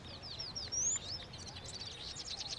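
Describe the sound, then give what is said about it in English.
Several birds chirp and tweet in quick, overlapping bursts over a soft low rumble, the high calls continuing throughout with no one speaking. “So, in the immortal words of Shakespeare, what do you read, my lord? Birds, birds, birds.”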